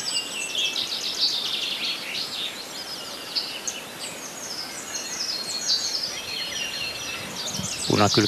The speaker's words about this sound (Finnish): Naakat